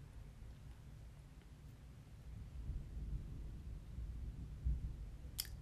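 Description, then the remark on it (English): A low rumble of thunder from a storm rolls in, swelling partway through with a deeper thump near the end, quiet and muffled with no voices. “Oh, it's about the storm.”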